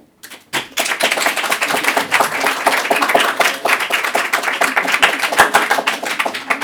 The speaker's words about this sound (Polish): Państwo będą mogli zdecydować w takim razie, czy rozmawiamy o Santa Cruz, czy o Filipie. Jeśli o Filipie, to proszę teraz o oklaski.